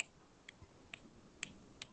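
A handful of crisp finger snaps at a steady pace, about one every half second, each a short bright crack over a faint low background rumble with no talking.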